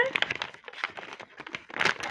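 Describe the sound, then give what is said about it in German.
Brittle crinkling of plastic packaging being handled and pulled open, irregular crackly bursts throughout with a louder flurry near the end. “Es Ist aber auch ist eigentlich so unnötig, dass sie das da nochmal in Plastik einpacken.”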